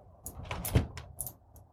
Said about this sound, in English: Okay. A little too fixy. Close the door, start all over again.